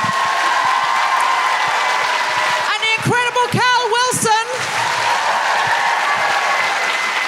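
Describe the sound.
A live audience applauds the evening's guests steadily, a dense wash of clapping that runs the whole time, while a voice calls out over it with rising, emphatic intonation in the middle.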